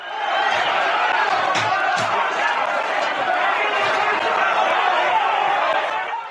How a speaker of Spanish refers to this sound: Pues mm, si recuerdas, hubo un caso en Lorca donde un grupo de personas asaltó un pleno municipal gritando cosas como estas.